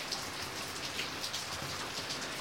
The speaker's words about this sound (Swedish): Trots att jag försökte ignorera det så var det något märkligt med det här regnet. Det verkade skumt och ur fokus, nästan som, som ett spöke. Det var då jag märkte något förvånande. Regnet föll inuti huset.